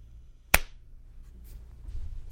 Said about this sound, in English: Um, can you do a quick clap? Yas. In one one second, I'll tell you when. Now.